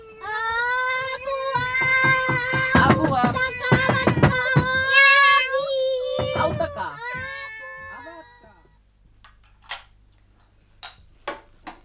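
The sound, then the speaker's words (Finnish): Valais Blacknose sheep bleat loudly and insistently, several calls overlapping for about eight seconds, a racket that carries as far as the back meadow, then it drops away to near quiet broken by a few sharp clicks. “niin ne hakee nokinenän tänne ja silloin alkaakin sellainen mekkala, että se kuuluu takaniitylle asti.”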